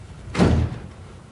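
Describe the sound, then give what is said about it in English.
A door swings open with a single solid thud and a brief rush of air as a man's wife comes through it, then all quiets again. No one speaks. “In four seconds, my wife is going to be coming through that door.”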